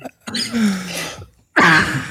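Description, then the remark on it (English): A person coughs and sputters after choking on their own saliva, a strained, throaty burst, then after a brief pause another harsh, rasping cough fit as if choking. “I've now made you start to cough on your own saliva.”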